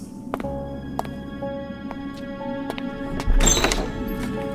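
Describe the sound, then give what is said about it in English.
A few light clicks and taps, then a heavy thunk with a burst of noise as a man flings front doors open, followed by a low, lingering rumble of ambience. “And after tossing them open, he looked back at me.”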